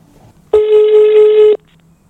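A single outgoing phone ringing tone on a call to Anki Bagger, a steady electronic beep lasting about a second, loud and clear over a faint background hum, with no one speaking.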